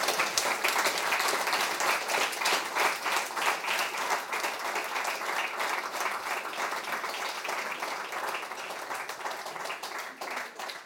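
Steady audience applause for a discussion panel at the end of the event lasts about eleven seconds, a dense patter of many hands clapping at once, fairly loud, with no voices rising above it.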